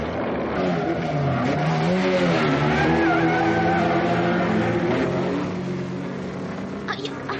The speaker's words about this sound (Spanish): allá viene un carro si me lleva. Le voy a hacer la seña para que se detenga.